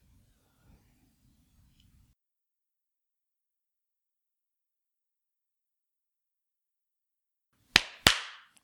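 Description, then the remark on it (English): Two sharp, loud hand claps in quick succession, each with a bright percussive crack and a brief trailing decay, following several seconds of near silence. “Clap on.”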